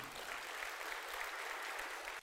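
A crowd claps steadily, a dense wash of many hands with no clear individual beats, holding an even level throughout before cutting off abruptly at the end.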